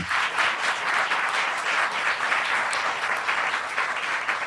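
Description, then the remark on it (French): A crowd applauds steadily, a dense, even wash of many hands clapping at once, sustained and fairly loud throughout with no voices on top. The audience applauds again for Léa Slimani and Sonia Terab, the cofounders of the collectif des Hors-la-Loi. “Donc, je vous demanderai d'applaudir encore une fois Léa Slimani et Sonia Terab.”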